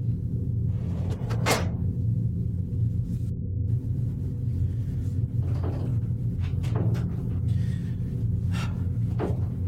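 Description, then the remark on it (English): Someone tries to turn the knob and pull open a stuck door several times, with sharp rattling clunks at irregular intervals over a constant low rumble in the background. No one speaks. “the door isn't opening. Just, just open the door. Just turn the knob and open the door.”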